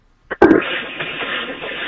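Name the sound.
small cough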